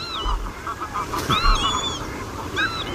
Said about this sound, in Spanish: Fochas, patos. Focha común. Focha común. Focha, no facha.